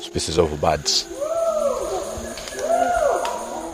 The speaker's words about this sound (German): Die Schimpansen sind an manchen Stellen im Wald aus der Ferne zu hören. Etwa 1500 leben hier. Das ist die größte Population weltweit.